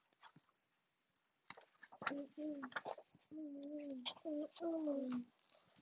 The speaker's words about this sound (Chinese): 我跟我的朋友鸟儿学唱歌。